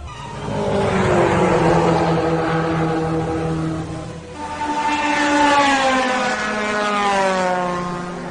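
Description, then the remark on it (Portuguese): Loud engines roar as cars, trucks, semi-trailer trucks and motorcycles pass in quick succession, one fading briefly before another surges past with a rising, droning hum. No voices are heard. “Outros veículos passaram: carros, caminhões, carretas, motocicletas, mas.”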